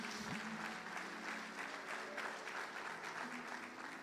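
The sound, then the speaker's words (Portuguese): Sustained applause from a church audience during a sermon on the word of God: a dense, steady wash of many hands clapping at an even level throughout, with a faint murmur of voices underneath. “Quem mergulha na palavra, pode aplaudir você que está aí, isso.”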